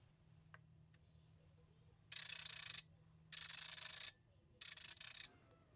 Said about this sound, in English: Does that give you a clue? It's a bit louder than usual because I was holding it pretty close to the microphone. But that is the sound of the Orbit Reader 20 powering up. It first displays all the dots of every cell and then retracts them